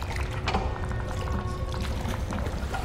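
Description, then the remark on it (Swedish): Continuous sloshing and splashing of water as someone wades through it knee-deep, with steady churning and occasional louder swishes, fairly loud, no voices. “Vattnet når upp till knäna.”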